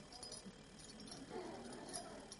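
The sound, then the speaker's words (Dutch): A bunch of keys jangles, a steady metallic rattle and clinking lasting a couple of seconds with no one speaking over it. “Nou, ik heb ze meegenomen.”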